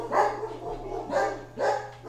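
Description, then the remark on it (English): Three separate dog barks sound in an uneven rhythm, clear, over a steady low electrical hum, with no one talking. “It's almost like the sound of dogs.”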